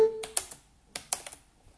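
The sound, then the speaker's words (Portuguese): A brief electronic click-tone from a screen reader switching modes, followed by two quick clusters of crisp keyboard key presses, moderately quiet, with no one talking, while using keyboard shortcuts to navigate Gmail contacts. “Pronto, aqui quando ouvir o clack eu consigo então usar os teclas de atalho.”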